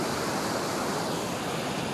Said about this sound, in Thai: ได้ยินเสียงน้ำไหมครับ โห ข้างนี้เป็นน้ำตกนะครับ บรรยากาศดีมากนะครับ อันนี้เป็นน้ำตกนะเป็นไงบ้างครับท่านโอเคไหมครับบรรยากาศน้ำตกฟังเสียงนะครับ